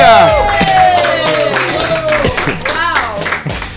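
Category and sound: crowd, audience applauding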